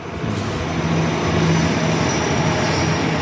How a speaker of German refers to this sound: Wir sind jetzt wieder eine Etage weiter unten. Die Züge fahren wieder auf Augenhöhe vorbei.